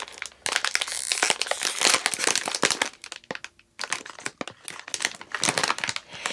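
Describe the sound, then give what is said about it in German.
Crinkly plastic packaging is greedily torn and crumpled open, a dense burst of sharp rustling crackles with a brief pause midway, loud and continuous with no voices. “Also gut, äh, Fehler 1, gierig aufreißen funktioniert nicht.”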